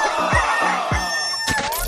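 A rooster crows loudly in one long, strained call, with a few dull low thumps underneath and no voices.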